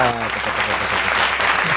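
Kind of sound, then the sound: crowd, hand clapping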